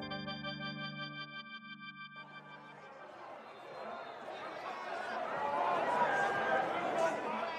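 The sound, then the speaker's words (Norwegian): A brief tonal musical sting fades into the dense roar of thousands of demonstrators protesting against coronavirus measures in London, many voices blending into a broad wash of noise that swells louder toward the end. “Dette er lyden av tusenvis av demonstranter som protesterer mot koronatiltak i London.”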